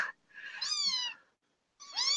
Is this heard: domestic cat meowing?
yes